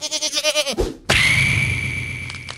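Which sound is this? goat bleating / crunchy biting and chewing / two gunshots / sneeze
goat bleating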